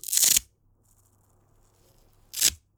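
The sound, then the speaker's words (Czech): Two loud rasping rips of a velcro watch strap with five velcro patches being pulled apart, one at the start and a shorter one near the end, with near silence between them. “Zapíná se na suchý zipy. Já udám takovýhle zvuk.”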